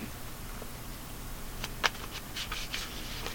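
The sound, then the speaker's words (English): A deck of tarot cards being shuffled, with soft papery flicks and light taps clustering in the second half, quiet and with no one speaking. “Alright, it was shuffled.”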